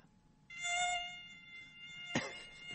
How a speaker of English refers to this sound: yeah, that's mosquito. Darn it! How'd they get in here?